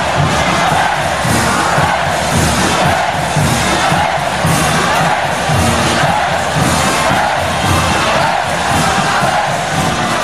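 A large crowd at a festival roars and cheers continuously, a dense wash of shouting voices holding steady and loud throughout with swelling surges of acclaim.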